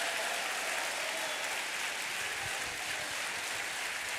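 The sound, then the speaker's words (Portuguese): A large group claps continuously in worship, glorifying the Lord, a dense, steady wash of applause that fills the whole stretch without pause, with no clear voices rising above it. “Glorifique até perder a voz. Aplauda, adore.”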